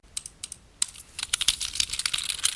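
computer mouse clicks

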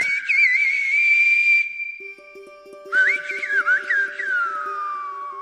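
silbo Gomero whistled language

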